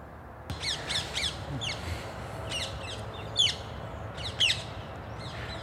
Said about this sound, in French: Alors on entend des petits, plein de petits oiseaux. Oui, mais celles qu'on vient d'entendre, c'est des perruches à collier. C'est une espèce invasive euh, qu'on a en Ile-de-France qui se développe de plus en plus